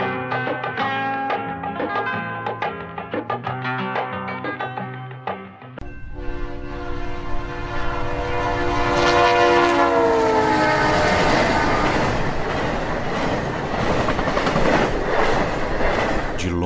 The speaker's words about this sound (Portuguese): longe em longe, uma locomotiva óleo diesel apita, desanimada, e vem furando as luzes na zona do cais.